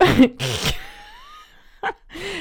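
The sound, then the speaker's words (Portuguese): A voice imitates an angry cat's hiss with two short, breathy bursts of noise, followed by quieter whines and a brief sharp exhale, with no actual words. “Eu, não, eu fiz bem mal este som de gato.”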